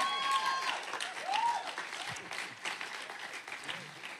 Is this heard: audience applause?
yes